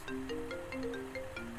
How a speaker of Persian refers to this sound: ساکا و صندوق رو ریختم زیر وسایل و اون دوتا قفلی که خریده بودم و زدم به در سریع رفتم لباس عوض کردم و سوار ماشین شدم استارت که زدم گوشیم زنگ خورد خب. یه شماره ناشناس